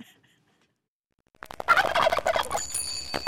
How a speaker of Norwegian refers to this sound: Og hvis du da lurer på hvordan det høres ut når du putter en kalkun gjennom en digital blender, der har du svaret.